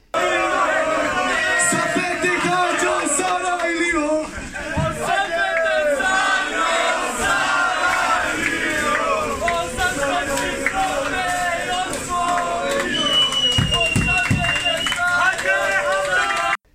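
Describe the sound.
A large crowd of fans cheers and chants loudly and continuously, celebrating a Slovenian Cup final win, many voices shouting together in a dense, roaring celebration with occasional sharper yells rising above the din.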